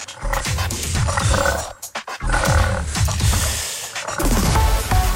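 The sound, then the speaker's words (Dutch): Wild boar grunting: a loud run of deep, rough grunts and snorts in irregular bursts, with a brief pause partway through before the grunting resumes. No voices. “Dus die klinken uiteindelijk net zo als mijn knorrige maagje.”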